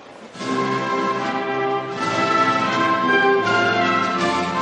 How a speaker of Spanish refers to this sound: Campeón olímpico y medalla de oro, el equipo de España. A continuación escucharemos el himno nacional de España.